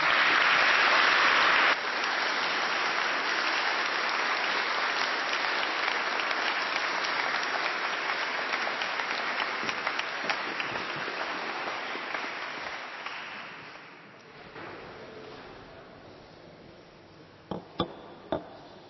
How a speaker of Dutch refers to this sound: ik zou zeggen, hartelijk applaus voor Mart.